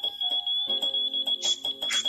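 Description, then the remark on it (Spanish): A high-pitched electronic alarm sounds continuously, a shrill steady tone lasting the whole moment, with irregular lower-pitched bursts of other sounds breaking in over it. “¿Qué es ese pitido de mierda?”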